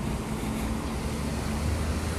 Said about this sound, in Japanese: 今信号が目の前にある信号が赤になっていましてですね車が渋滞している感じですね何台も、うん、ほとんど車の色白ですねたまたま、うん、白白白ときて赤っていうね急に赤白っていうねそういう感じです1台以外全部白色の